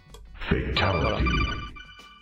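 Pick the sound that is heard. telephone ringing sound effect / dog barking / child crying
telephone ringing sound effect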